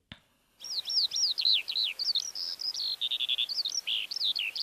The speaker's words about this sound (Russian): И, конечно, слушатели просят вас пару слов про жаворонка, а вы даже и голос жаворонка принесли с собой. Давайте его послушаем для начала.